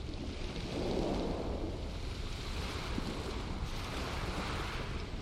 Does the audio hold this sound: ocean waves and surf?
yes